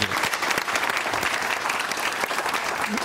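Steady applause from a crowd, a dense wash of rapid clapping that stays loud and even for about three seconds without any clear pauses.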